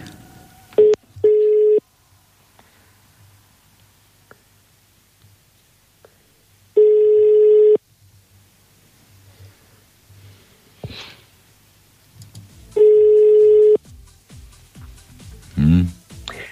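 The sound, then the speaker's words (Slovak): A telephone line rings out with long steady electronic tones, about one second each, repeating every few seconds after a quick dialing blip as a call is tried again, with quiet rustling and faint breathing in between. “Ja, no, počkaj, ja ti dám ešte raz a skúsim, počkaj.”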